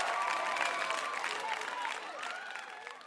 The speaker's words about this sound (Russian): можешь вставить аплодисменты?